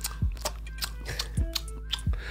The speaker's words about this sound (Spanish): escucha un poco. La cabra masticando.